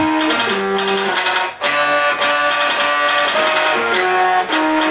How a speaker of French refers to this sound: Et, la musique qu'on entend, elle est faite avec deux scanners.